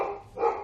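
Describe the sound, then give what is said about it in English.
A male dog barks twice in quick succession, moderately loud, with no talking over it. “Sorry about my barking dog.”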